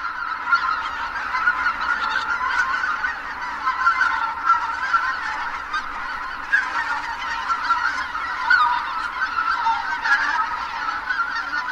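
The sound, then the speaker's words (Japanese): A dense chorus of greater white-fronted geese calling to one another in flight as they return at sunset to their roost on a marsh, many overlapping high-pitched honks and yelps in a steady, unbroken clamor with no voices. “この鳴き声は夕方日没とともに泣き合いながらねぐらに戻ってきた時の声です”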